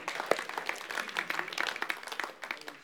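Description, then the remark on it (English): A small church audience applauds to give God a hand during the pandemic: a thin, scattered patter of many irregular hand claps at moderate loudness, with no voices over it. “The clap doesn't sound as good anymore”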